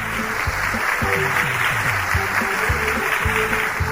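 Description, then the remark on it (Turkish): Steady applause from a crowd for a correct quiz answer fills the whole stretch, a dense even patter of many hands clapping, fairly loud, with a few low musical tones running underneath. “O zaman alkış hak ediyor.”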